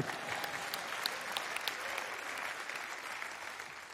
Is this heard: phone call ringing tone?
no